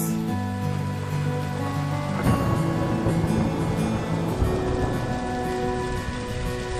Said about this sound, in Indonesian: Hujan deras sekali. Bahaya pulang dalam keadaan seperti ini. Tuhan, turunkan hujan yang lebih deras.